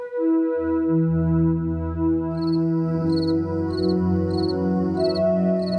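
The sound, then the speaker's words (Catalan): Crickets chirp in steady, evenly spaced pulses that begin a couple of seconds in, layered over a loud, sustained musical drone of held harmonic tones. No one speaks. “Sí, ara estàvem sentint els grills.”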